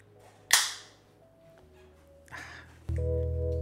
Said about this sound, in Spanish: Ojo con ese sonido, el sonido de la cheve.